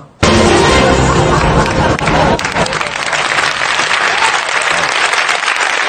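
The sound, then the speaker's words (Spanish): An audience bursts into loud, dense applause that starts abruptly and keeps going for several seconds, easing slightly partway through but staying steady as a continuous wash of clapping. “o sea, he señalado sí, no para buscar el aplauso, sino para que veáis el nivelazo, ¿no?”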